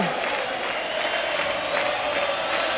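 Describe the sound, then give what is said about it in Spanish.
A large audience at the Quinta Vergara applauds Felo steadily, a dense wash of clapping with some cheering mixed in, holding at a constant loud level throughout. “Mira, Felo, toda la Quinta Vergara aplaudiéndote y reconociendo tu gran talento, tu trayectoria.”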